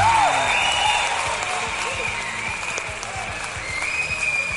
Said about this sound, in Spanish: Aplausos familia, aplausos como dijera Memo Ríos.